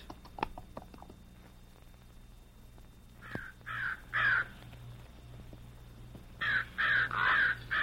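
Harsh crow caws ring out in two bursts, three calls and then a quicker run of four, loud, over a low steady background hum with a few faint taps early on.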